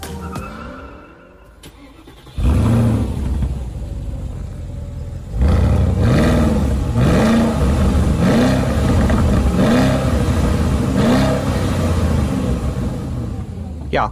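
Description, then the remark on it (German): A Porsche Cayenne Turbo S engine starts with a loud rumble, idles briefly, then is blipped through a rapid series of repeated throttle revs, each rising and falling. “Sound passt zu dem Auto.”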